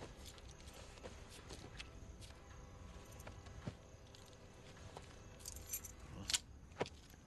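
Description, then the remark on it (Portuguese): Car keys jingle and clink in a series of light metallic rattles, with a couple of sharper, brighter jangles near the end, fairly quiet, with no talking. “tem a chave do carro, não sei o que, então.”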